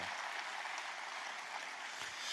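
A crowd claps steadily, giving Jesus a mighty applause in the morning, a dense wash of many hands applauding at a fairly even level throughout, with no voices standing out.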